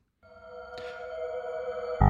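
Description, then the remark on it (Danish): A hacker-style sound effect: a sustained, buzzy synthetic tone with a brief crackling burst partway through, gradually swelling louder before ending on an abrupt, harsh hit. No one speaks. “Så får du den her hackerlyd.”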